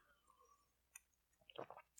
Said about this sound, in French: Et, m'excuser, il va commencer avec une gorgée, c'était un peu mal poli.